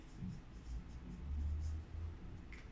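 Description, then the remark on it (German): Soft scratching of a pen or marker moving across a surface in short, uneven strokes, quiet, with no voices. “Also, hoppala, der ist, der ist leer, der Stift, Dann nehme ich den anderen.”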